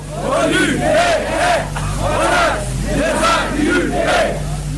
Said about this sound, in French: Et le défilé s'écoule ainsi sous le regard curieux des militaires. Le problème des inculpés lillois et de la période électorale n'était pas absent des cris et des mots d'ordre des manifestants.